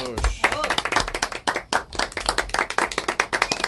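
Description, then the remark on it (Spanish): A crowd in Cartagena breaks into an ovation for President Santos, dense rapid clapping filling the whole stretch at a fairly loud, steady level, with a few voices briefly rising at the start. “A ver, señores presidente Santos, ovación para usted en Cartagena.”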